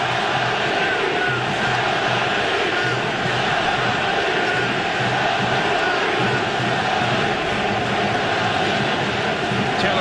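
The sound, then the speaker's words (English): A huge baseball stadium crowd at the Coliseum roars and cheers without a break during a 2023 Tampa Bay Rays game, a dense, loud wall of voices that stays intense for the whole stretch, with no single clear speaker standing out. “Uh, crowd go silent and now getting very loud at the Coliseum.”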